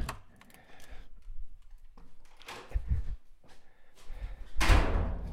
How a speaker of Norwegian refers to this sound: Da jeg kom til biblioteket, lista meg inn en sidedør her. Da er det fire dører jeg skal gjennom. Det var dør nummer én.